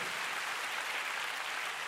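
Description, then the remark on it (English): An audience gives the Lord a big hand, clapping together in a steady, dense wash of applause, many hands blending into a continuous crackling roar that holds at an even level throughout, with no voices standing out. “Oh, you want to clap? Get the Lord a big hand tonight.”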